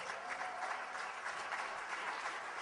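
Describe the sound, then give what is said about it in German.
An audience applauds for Jesus, a dense wash of many hands clapping at an even, sustained level for the whole stretch, with no voices rising above it. “Dankeschön, der Applaus, der gehört wirklich Jesus.”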